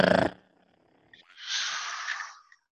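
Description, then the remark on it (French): A short loud vocal burst, then after a brief pause a voice makes a rapid rolling, buzzing trill for about a second, mimicking a drum roll into the microphone. “Drum roll, on fait le drum roll.”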